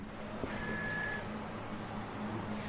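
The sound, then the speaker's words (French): A braille printer runs steadily, printing a tactile drawing of Pongo seen in profile and the Hunchback of Notre-Dame from original drawings, with a dense mechanical whir and clatter, plus a brief high whine partway through. No one speaks. “Donc là, on vient d'imprimer Pongo vue de profil et le bossu de Notre-Dame.”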